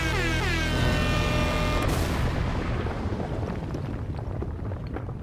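A short, dramatic jingle introducing a wrap-up segment: sustained, rising synth tones build for about two seconds, then a loud explosive boom hits and rumbles away. No one speaks.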